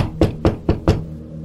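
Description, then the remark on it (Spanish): Four firm knocks on a bedroom door at night in a quick, even rhythm, fairly loud, with a faint low hum in the background and no voices. “Todo había quedado en eso hasta que volvieron a tocar una noche a la puerta, pero esta vez fue en la puerta de mi habitación.”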